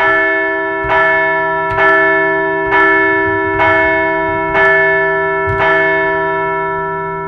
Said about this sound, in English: You bet it is time to ring the bell.